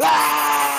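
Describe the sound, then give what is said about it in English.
A short, loud, strained scream, like a voice imitating an old woman's dying shriek, held for under a second, followed by a bit of laughter. “This is the sound of an old lady dying, and it's like what?”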